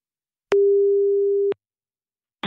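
A single steady telephone ringback tone sounds for about a second, clicking on and off cleanly, followed by silence before a brief burst of noise at the end.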